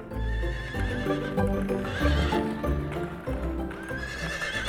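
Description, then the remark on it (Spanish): The hooves of two horses clop steadily over pavement with carriage wheels rolling along, fairly loud, while a horse whinnies through the busy, continuous street sound. “Se escuchó el ruido claro de las herraduras de los caballos y el rozar de las ruedas sobre el pavimento, seguidos por el llamado brusco de la campanilla.”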